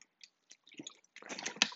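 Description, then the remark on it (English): Wet mouth sounds of someone sipping water from a bottle: a few soft clicks and swallows, then a louder gulping, sloshing burst at the end, with no talking. “Sorry if you can hear my water.”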